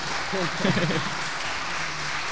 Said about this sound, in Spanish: Con este aplauso para ti.